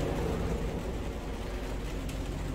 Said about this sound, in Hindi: अब ये कोई ड्रोन उड़ा रहा उड़ा रहा नहीं अच्छा हेलीकॉप्टर पुलिस का हेलीकॉप्टर